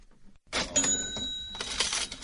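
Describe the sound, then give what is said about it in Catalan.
A cash register rings out with a bright bell chime over the rattle and clatter of its drawer mechanism, loud, heard alone without any voices. “Doncs, eh, Josep, aquest és el so que ens porta, com sempre, a repassar la recaptació de la setmana.”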